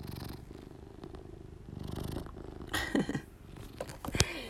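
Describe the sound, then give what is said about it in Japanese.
An elderly cat purrs steadily, a low continuous rumble with rhythmic pulses, while its eye discharge is being wiped away, followed by a few brief rustling and handling noises near the end. “C はねもう晩年メアニ選手だからねはいはいはいメアニ取りましたゴロゴロ言うてます”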